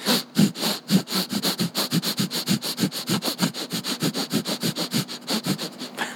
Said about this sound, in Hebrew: כן, זה ממש נשמע כמו איזה כלב ים, זה כן. תמיד מצחיק אותי. משהו מצחיק. לאט, אתם רוצים פשוט להכניס אוויר מאף ולהוציא אוויר מאף הכי מהר שאפשר, אז זה...